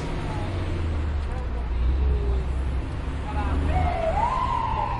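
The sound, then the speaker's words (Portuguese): Busy city street traffic ambience in a busy city with many buildings: a steady rumble of engines and passing cars, with a siren-like tone rising briefly near the end and faint background voices. “nós podemos estar juntos numa cidade muito movimentada, com bastante prédios.”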